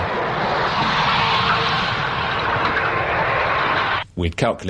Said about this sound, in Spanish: Este sonido fue recogido cuando los torpedos del Conqueror fueron disparados. Para incrementar las posibilidades de hacer blanco se dispararon tres torpedos separados 30 metros uno del otro.